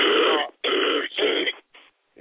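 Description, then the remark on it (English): A harsh fit of coughing: three loud, rasping bursts in quick succession, followed by two softer, shorter coughs as it fades out. “i am just coughing.”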